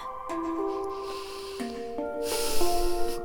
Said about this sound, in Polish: Nie spieszcie się, oddychamy nosem.